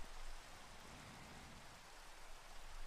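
Steady rain falls in a continuous, even hiss, dense and unbroken across the whole stretch, soft, with no voices or other sounds over it.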